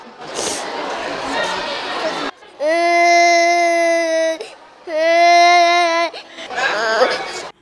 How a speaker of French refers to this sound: Il y a beaucoup de pleurs aujourd'hui parce qu'il y a beaucoup de nouveaux qui ne sont pas habitués à l'école, mais on les console de notre manière.